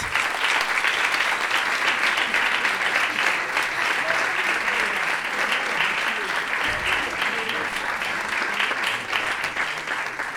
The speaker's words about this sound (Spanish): Entonces vamos a hacer un doble aplauso porque este aplauso es para María Maniqueira y este es para Adrian Timms.